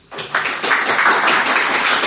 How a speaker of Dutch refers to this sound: Mag ik eerst een eh, warm applaus?